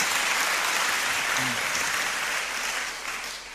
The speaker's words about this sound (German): Ja, können wir Jesus mal Applaus geben für das Licht, das er uns schenkt.